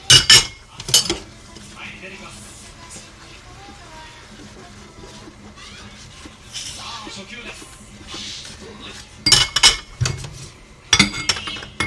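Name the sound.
washing dishes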